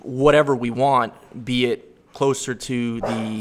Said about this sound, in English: Our security. That's, our, that's, that's a dog. That's my dog actually